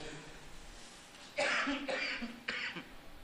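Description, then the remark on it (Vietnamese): Three harsh coughs in quick succession, loud, with a raspy throaty edge and no talking around them, from an itchy throat after talking for a while. “nãy giờ nói chuyện giận ho ngứa cổ”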